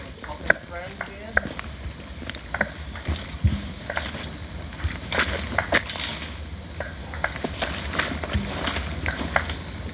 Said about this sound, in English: Ooh, creek crossing. And there's our little striped marsh frog.